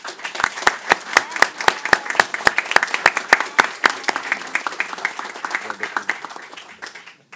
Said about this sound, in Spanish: Te voy a pedir, le voy a pedir a todos nuestros amigos aquí un aplauso para ti.